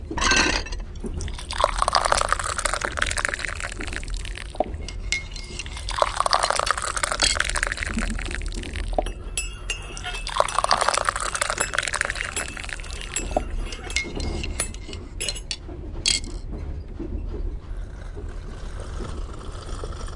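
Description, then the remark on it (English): Mariage Frères tea is poured in three separate streams, each rising in pitch as the cup fills, with light clinks of china cups in between and a faint room hum underneath. “Ladies, Tea is served.”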